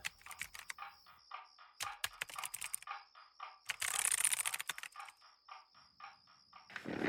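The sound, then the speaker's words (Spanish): Rapid typing on a computer keyboard, a steady patter of clicky keystrokes with brief pauses and a denser burst midway, as someone finishes work at their computer, with no voices. “Vuelvo a mi ordenador. Tengo que terminar el trabajo antes de que empiece la campaña mañana.”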